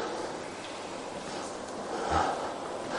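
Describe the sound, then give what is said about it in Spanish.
A patient, asked to breathe in, draws a long, deep breath through the mouth, a steady breathy hiss lasting a few seconds that swells slightly toward the end, with no talking. “Le mandamos respirar. Por favor, si está le coja aire.”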